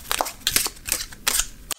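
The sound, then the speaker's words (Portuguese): Tarot de la Nuit cards being shuffled: a quick run of crisp, papery flicks and riffles in several short bursts, fairly loud with no voices, ending in a sharp snap. “Bora embaralhar essas cartas!”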